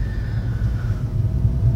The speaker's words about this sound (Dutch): Want normaal gesproken is het 10 minuutjes rijden naar mijn afspraak. En ik zit nu al 20 minuten in de auto.